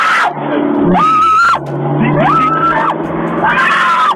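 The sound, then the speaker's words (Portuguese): A voice imitates a woman screaming in panic in the dark on a highway at night: three drawn-out, high-pitched wails in quick succession, loud, each rising and falling, with a low rumble underneath. “Tava tudo escuro e ela gritava.”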